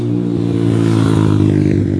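A loud motorcycle engine roars as the motorcycle leaves, revving with a steady throaty drone and rattling harmonics for a couple of seconds, with no voices over it.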